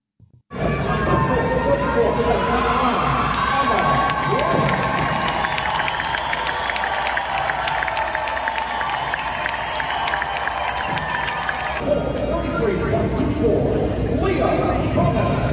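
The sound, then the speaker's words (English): A large audience at a swim meet cheers loudly and continuously in response to runner-up Emma Weyant, with shouts and scattered applause blending into a dense roar that holds steady for about fifteen seconds. “in this first clip here, you will hear the audience response to that runner up, Emma Weyant, and then the response to Lia Thomas's so called victory.”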